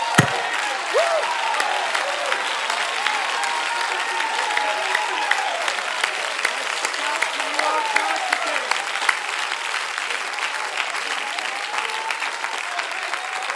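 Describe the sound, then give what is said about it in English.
An audience claps hands steadily for over thirteen seconds, a dense, continuous wash of applause at even loudness, with faint scattered cheers and voices mixed in. “Oh, clap your hands, oh ye people, shout unto God with a voice of triumph.”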